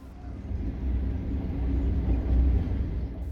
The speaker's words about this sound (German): Der Zug fährt weiter zum 200 Kilometer entfernten Issikulsee.